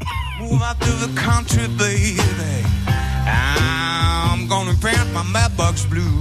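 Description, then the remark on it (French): A live blues duo plays at a steady, loud level, with a rhythmic bass and drum pulse under bright, wavering guitar or vocal lines that sustain and bend, and no speech. “ce que vous entendez, c'est euh, l'enregistrement de l'équipe de France Bleu Poitou pour Bleu Poitou Live”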